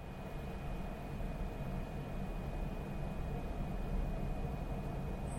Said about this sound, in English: That is the sound of well running equipment in an industrial setting.